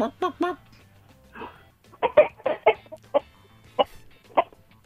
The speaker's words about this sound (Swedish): Är det en tupp eller är det en höna vi hör nu? Ja, men den, den svarar dig. Ja, det är tuppen, men han bara muttrar lite grann.